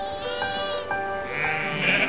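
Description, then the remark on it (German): A flock of sheep on a meadow at the edge of a forest outside a town bleat in overlapping, wavering cries, several voices layering into a steady chorus with a brighter, rising bleat toward the end; no one speaks. “Die Schäfer vertrauten das Hüten der Herde ihren Hunden an”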